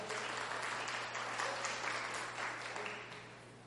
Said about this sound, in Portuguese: E nós somos quem? Nós somos o corpo. Amém? Bata palmas para o corpo aí.